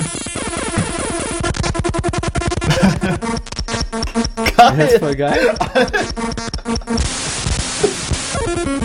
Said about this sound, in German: Ach komm, das klingt cool. Nein, du kannst es beenden. Das ist eine geile Elektromusik. Nein. Hey, lass das an. Keine gute Musik. Mir gefällt.